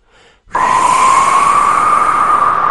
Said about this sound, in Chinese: 半夜里，刮起了大风，